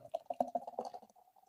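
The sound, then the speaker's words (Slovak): Beer is poured, glugging out in quick rhythmic pulses like pouring from a can into a glass, fairly loud before tapering into a softer trickle. “Čiže, zvuk aj nalievania.”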